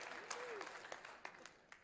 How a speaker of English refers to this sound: Anybody here still cognitively dissonant? Let me hear the applause.